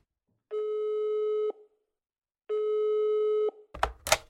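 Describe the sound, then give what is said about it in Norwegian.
Two long, steady telephone ringback tones, each about a second, separated by a pause, followed by a brief clattering burst like a receiver being picked up. No one speaks. “Vi ringer Lars Stokstad.”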